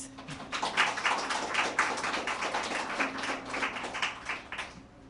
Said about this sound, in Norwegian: Kan jeg gjerne gi en applaus?